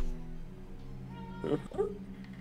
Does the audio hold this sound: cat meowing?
yes